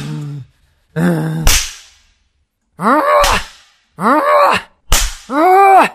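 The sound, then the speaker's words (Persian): Two sharp, loud whip cracks as a failed student is whipped off the stage, landing a few seconds apart, each met by drawn-out pained cries and groans, with moaning in between. “ببریدش شاگرد مردود را با شلاق از صحنه خارج بود”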